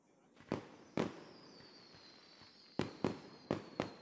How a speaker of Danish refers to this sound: Geo tager hunden med hen til vinduet, så den kan se alle de flotte farver, som fyrværkeriet laver.